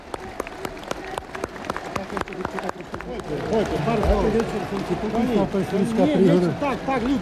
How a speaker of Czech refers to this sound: slovenského národního povstání v srpnu 1990 ho nakonec k projevu přimělo až nadšené skandování schromážděných na Banskobystrickém náměstí.